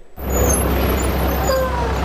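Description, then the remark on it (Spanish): Several buses carrying undocumented migrants arrive early in the morning at an airport in southern Texas used by Immigration and Customs Enforcement for deportations. A bus rumbles loudly and steadily, its deep engine drone filling the scene, with airy hiss and a faint high brake squeal rising near the end. “A tempranas horas, llegaron varios autobuses con migrantes indocumentados hasta un aeropuerto del sur de Texas uno de varios utilizados por la Oficina de Inmigración y Control de Aduanas para ejecutar órdenes de deportación.”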